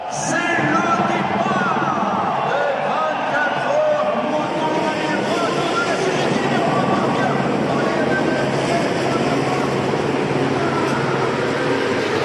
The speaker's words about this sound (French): Les deux roues à Paris, c'est un peu le grand écart. Chez les opposants, il y a notamment le bruit pétaradant des motos et scooters. Ça donne à peu près ça en ressenti, notamment lorsque le feu passe au vert.